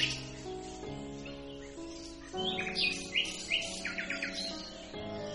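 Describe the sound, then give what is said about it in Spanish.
Small birds chirp in quick, bright bursts over a steady background hum as they are let go to fly in a park, the tweets clustering into rapid little trills in the middle before easing off. “Susan sacó a todos los pajarillos, los llevó al parque y los dejó volar.”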